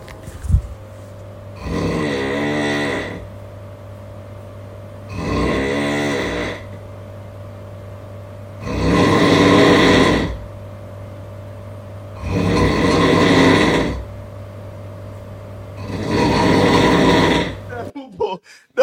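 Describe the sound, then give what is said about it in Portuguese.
A voice imitates a chainsaw with five loud, rasping, buzzing bursts of about two seconds each, separated by short pauses, over a steady low hum. “Aqui é a motosserra.”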